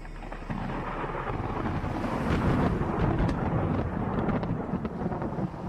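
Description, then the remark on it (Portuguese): A steady, deep rumble of far-off thunder from an approaching storm, with lightning striking the sea on the horizon, rolls on without a break, mixed with a broad whoosh of storm wind gusting against the microphone. No voices. “No horizonte, raios caem no, no, mar, anunciando uma tempestade que se aproxima.”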